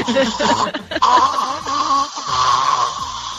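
Loud, close-up snoring or choking noises: a run of raspy, gurgling, strained vocal rasps that rise and fall unevenly for a few seconds, like someone struggling for breath.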